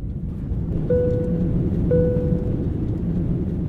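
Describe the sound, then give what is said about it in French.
A steady, loud low-pitched roar like the inside of an airplane cabin on a flight landing in Quebec City, Canada, with two short electronic chime tones about a second apart. No one speaks. “Ok, après ce vol en avion, j'ai directement atterri dans la ville de Québec.”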